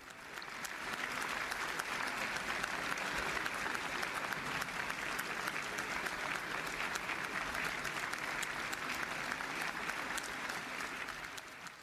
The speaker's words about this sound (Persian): خب شما تقریبا متوجه چیزی نشدید جز اینکه تصویر سالن را تجسم کردید که در آن زنان و مردانی کس یا کسانی را تشویق میکنند